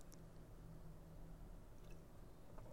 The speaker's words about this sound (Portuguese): E dados os avisos, eu vou beber uma água aqui, peraí.